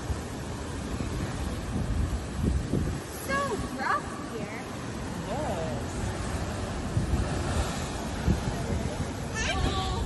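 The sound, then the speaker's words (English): Steady wind buffets the microphone over the rumble and wash of ocean waves at the shore, loud and continuous throughout, with a few faint voices calling out now and then. “And there have been people who have been killed by such, uh, uh, I guess, um, I was going to say idiocy, but just, you know, by being too close to the water.”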